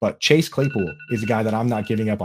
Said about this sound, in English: Sorry, that was my phone going off with the uh, daily Chase Claypool alarm, the alert every time I drop his name.